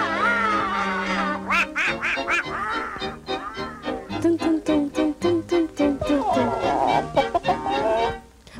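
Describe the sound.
The raspy, nasal voice of the Disney cartoon character Donald Duck quacks and squawks in rapid, choppy, loud bursts, sounding like garbled duck-like chatter that runs continuously for several seconds, a voice imitating a duck.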